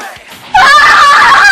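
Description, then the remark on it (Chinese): Two sisters scream loudly together in a KTV room, a sudden high-pitched, sustained shriek that bursts in after a brief quiet moment and holds at full strength for about a second, with no talking. “两姐妹继续看着这支 MV，就发现，忽然两个人对看了一眼，大声尖叫。”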